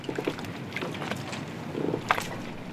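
Outdoor harbour ambience on the pier of the harbour on the island of Porquerolles, where fishermen's boats are moored, with a steady wash of wind and water, soft creaks and knocks from the boats, and a couple of brighter clanks rising above the background.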